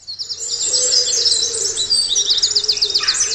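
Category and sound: bird, wren singing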